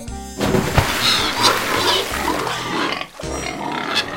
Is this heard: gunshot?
no